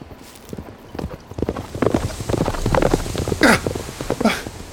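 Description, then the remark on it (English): Rapid, rhythmic hoofbeats of a large horse with a rider galloping past the opening of a dead end in a maze at night, growing louder as it passes, with no voices over the clatter. “Is that a horse running?”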